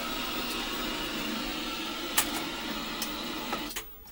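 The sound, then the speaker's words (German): A VHS video recorder powers up with a steady mechanical whir and hiss, broken by a few sharp clicks, before the running noise suddenly drops away near the end. No one speaks. “Und wir schalten jetzt mal ein. Wir gucken mal, ob wir dem Gerät okay. hier auch einen Ton entlocken können.”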